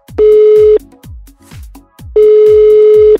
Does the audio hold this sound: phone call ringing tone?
yes